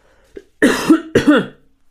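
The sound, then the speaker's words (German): A heavily pregnant woman, seated and with a frog in her throat, clears her throat twice in quick succession: two harsh, rasping bursts after a faint short catch, with no talking. “ich weiß nicht, warum ich jedes Mal, wenn ich hier sitze, kriege einen Frosch im Hals.”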